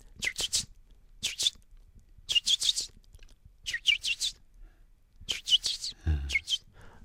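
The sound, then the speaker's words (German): Young blackbirds that have left the nest and hide in a garden give repeated sharp, high, slightly hissy location and begging calls to their parents, arriving in quick clusters of two to four with short pauses between. “Das sind so eine Standort- und Bettelrufe.”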